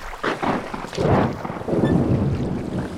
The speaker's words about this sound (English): Thunder, but no wind, no rain. It's dead still.